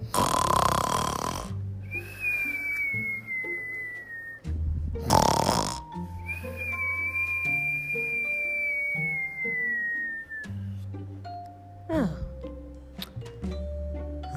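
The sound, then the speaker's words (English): A voice imitates the snoring of a story character, Lydia Lou, who has turned onto her back: rough, rasping snorts alternate with long, thin whistling exhales, repeated a few times over soft background music. “Lydia Lou turned onto her back uh, and began to snore.”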